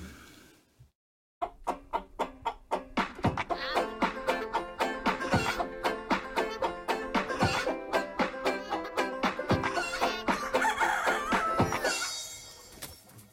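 After a brief quiet moment, a rooster crows and clucks loudly, a dense run of rhythmic, repeated calls lasting about twelve seconds with no talking.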